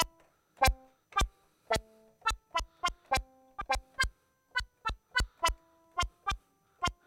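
Short, plucky synthesizer notes with a short filter envelope decay and low sustain and release play a quick melodic pattern, each starting with a sharp click and fading fast, about sixteen notes over several seconds, clear with no voices.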